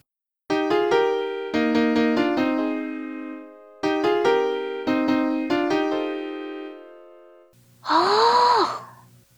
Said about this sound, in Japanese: で、修正で、その、銅のところ、3連続で出るやつを、ちょっと下げて、シのフラット。にしてやりました。はい、これはですね、E フラットの構成音なので、うん、メジャーコード感がちょっと戻るかなと。いう狙いでやっております。えー、じゃあ修正した3度下のハモリ聞いていただきましょう。